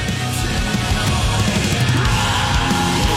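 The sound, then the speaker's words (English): A new rock song: loud, dense music with heavy distorted guitars and drums, three layered vocal tracks, and harsh screamed vocals buried in the mix behind the main singing. “Screaming in the background.”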